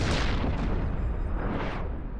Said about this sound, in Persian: و قایق با انفجاری عظیم تبدیل به خاکستر شد